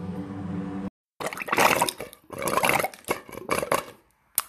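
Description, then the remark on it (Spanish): Water pours steadily with a rising hollow tone until the water runs out, breaking into uneven sputtering gushes and gurgles before trickling to a stop, fairly loud with no voices. “Ah, se terminó el agua.”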